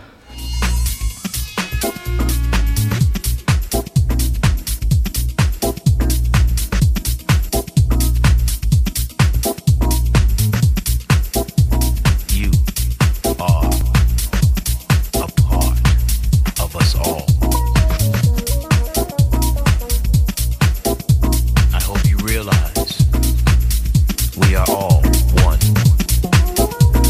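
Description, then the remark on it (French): A driving electronic dance track with a steady four-on-the-floor kick, crisp hi-hats and a deep bassline, loud and continuous throughout with no voices. “Un morceau m'a particulièrement fait vibrer,”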